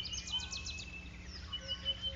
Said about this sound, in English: The bird shrieks a warning, shh, danger on the ground, and the monkeys repeat it using their own term, and everyone runs for it.